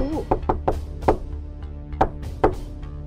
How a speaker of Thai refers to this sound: จากนั้นมันก็ได้กลับไปที่บ้านแพะอีกครั้ง แล้วมันก็ได้ไปเคาะประตู